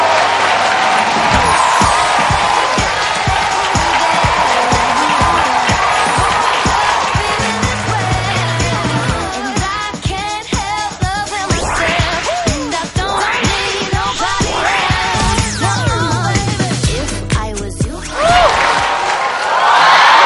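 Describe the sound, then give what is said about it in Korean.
Sustained audience applause with cheering and whoops as guest Han Go-eun is introduced, a dense wash of clapping that stays loud for about twenty seconds, with rising shouts and music-like tones mixed in toward the end. “게스트 모시겠습니다. 한고은 씨입니다, 여러분. 박수로.”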